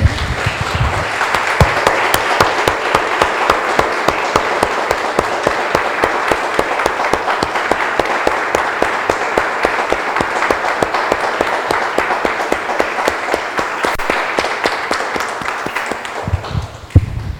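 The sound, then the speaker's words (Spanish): An audience claps steadily for about seventeen seconds, a dense, even wash of many hands applauding, with no speech over it before it tapers off at the end. “Damos un aplauso, hermanos.”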